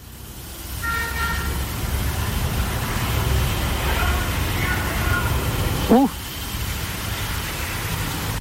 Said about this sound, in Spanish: Y es que eh, la psicofonía es, es, captada en completo silencio y de repente surge una especie de pitido, como una bocina, surge de la nada